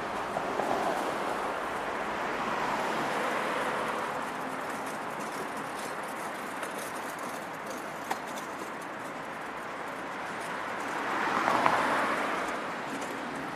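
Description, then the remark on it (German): A steady, broad rushing roar of car traffic moving over several lanes of the Autobahn 2 motorway in Germany, continuous, swelling slightly near the end as vehicles pass, with no voices. “Hörst du das Rauschen der Autos?”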